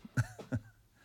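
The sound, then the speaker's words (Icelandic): A short burst of harsh coughing, two or three rough, throaty hacks in quick succession, like someone choking slightly on something caught in the throat, followed by a faint lingering rasp. “Stændur nú í mér.”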